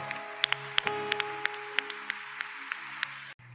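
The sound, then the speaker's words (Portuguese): An audience applauds the Lord after a prayer, with scattered, uneven claps, a dozen or so sharp hand claps standing out over a steady, low sustained musical drone, before cutting off abruptly. “Aplauda ao Senhor.”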